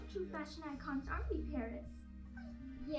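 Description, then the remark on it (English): A small dog with a curler in its hair yips and whimpers in a quick run of high, bouncing cries, with a low steady hum running underneath throughout. “Well, not until she takes the curler out of the dog's hair.”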